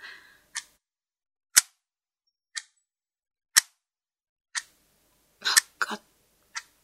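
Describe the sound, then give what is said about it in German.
A large cuckoo clock (bird clock) with wooden carvings, topped by a great stag with huge antlers, ticks with sharp, loud clicks about once per second, mostly steady, with a brief cluster of quick ticks near the end, and no voices. “Dieses Ticken, das, das schmeckte so, so bitter. Wie konnte man diese verdammte Vogeluhr dazu bringen, aufzuhören?”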